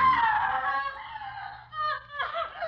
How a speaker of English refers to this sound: That is the scream of a Yugoslav woman. She's not being molested. Her pain is mental. She's just remembered something that happened on Bloody Sunday in Belgrade in Yugoslavia.